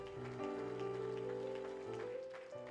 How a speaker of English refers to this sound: So we honor you and we respect you. And if we can give all the women in this place a big hand clap of appreciation